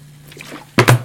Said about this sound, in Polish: O, wylałem kole. Brawo, ja!